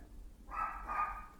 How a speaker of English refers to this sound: That's my dog. Why are you barking?